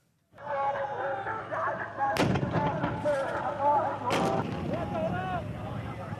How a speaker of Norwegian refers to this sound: Vi hører bombekastere avfyrte av Al-Hashad al-Shabi, eller Popular Mobilization Forces. Det er en sekkebetegnelse for omtrent 40 forskjellige militser, for det meste sjiamuslimske,